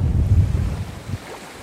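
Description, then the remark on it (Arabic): Sea waves wash against the shore in a steady rumble, louder at first and then easing slightly, with wind buffeting over it and no voices. “فضلت البحر عن المدرسه كنت اهرب وما اروحش على المدرسه اجي على البحر ضيعنا العمر كله في هالبحر هذا”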